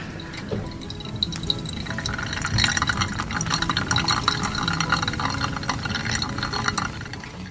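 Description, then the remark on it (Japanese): A steady trickle of hot water being poured over coffee grounds during hand-drip brewing, a continuous splashing and gurgling pour that runs unbroken with no talking. “じゃあ今から抽出していきたいと思いますハンドドリップしてる時のこの音と香りっていうのは本当にいいですね。”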